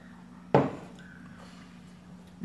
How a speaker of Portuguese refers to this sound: apenas pegando uma água aqui. Saúde a todos.